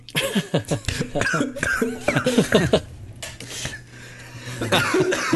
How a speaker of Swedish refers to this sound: Symfonimetal-killen börjar hosta. Nej, jag satte vrångstrupen direkt.